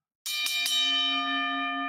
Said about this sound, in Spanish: Empieza a sonar la campana random. Dice, ¿qué es esto? Y la campana sin ritmo, porque tú sabes que es que tengo un ritmo para tocar la campana. oye, ponla de aquí para que la gente sepa. tiene, tiene que ser así, escuche bien, para que, usted sepa.